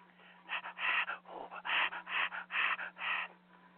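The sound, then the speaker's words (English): Heavy, rhythmic panting breaths from a strangling scene in a film, about seven harsh in-and-out gasps in quick succession, loud, over a faint steady hum with no talking. “comes a famous pervert strangling breathing scene again.”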